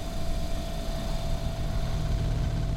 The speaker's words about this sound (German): Der Kühlschrank schnurrt energieeffizient.